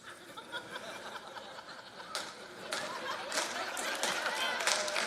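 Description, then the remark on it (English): A church audience breaks into applause mixed with laughter and chatter during a sermon, the clapping a dense, steady patter that grows louder and fuller after the first couple of seconds. “I don't know which one you're clapping for, but I always tell people I don't preach politics from the pulpit, but if you buy me a cup of coffee, I'll tell you how to vote.”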